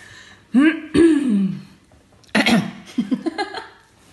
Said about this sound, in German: Du kannst dich schon mal gleich räuspern, aber noch nicht. Warte.